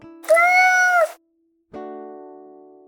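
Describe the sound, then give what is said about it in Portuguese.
A single loud, drawn-out cat meow lasting under a second, followed after a short pause by a ringing tonal note that slowly fades away. “E para dar tchau, depois desses ai gatos, deixo o meu miau.”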